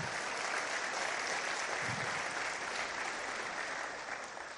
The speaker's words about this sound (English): Let's give Crowley ISD another hand of applause.